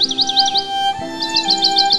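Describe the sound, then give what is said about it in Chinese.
A hwamei thrush sings nearby, two quick runs of repeated high, whistled notes separated by a short pause, over a steady low tonal hum. “一只画眉鸟正在附近唱歌。”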